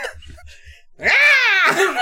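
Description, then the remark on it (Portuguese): After a second of faint low rumbling, a loud, high-pitched scream bursts out, rising and falling in pitch over about a second before cutting off. “Só sai o grito.”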